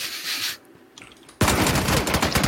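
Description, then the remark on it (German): Video game gunfire, someone shooting at the player: a brief burst of shots, a short lull, then loud, sustained rapid-fire shooting with a fast crackling rhythm that continues to the end. “Das also hat irgendwer von irgendwo auf mich geschossen.”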